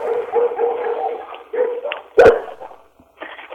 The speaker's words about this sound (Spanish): Ay, perdón, es que mis perros se están dando.